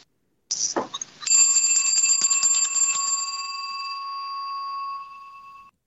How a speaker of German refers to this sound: Jetzt hören wir wieder die Glocke.